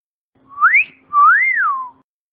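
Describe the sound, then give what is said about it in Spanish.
A loud wolf whistle performed by a man who was dared to do it: a quick rising note, a brief pause, then a longer swoop that climbs and falls away, with no talking. “Además el silbido lo había hecho un amigo mío porque le habían retado a que no era capaz de hacer el silbido así de cuando pasa una, una chica buena así en plan tal”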